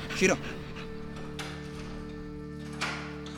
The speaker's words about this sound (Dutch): Je ziet, de klik komt, op het moment dat ze gaat zitten, klik en er komt gelijk voer. Dus ze weet, wat ik doe is goed.